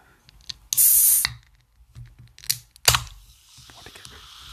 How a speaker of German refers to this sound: So, und äh, an der Stelle machen wir auch den Energy auf. So, bam. Mal gucken, wie der klingt.